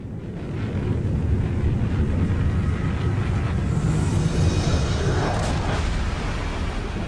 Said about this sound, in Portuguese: Esse é o som de um meteoro, para quem não identificou.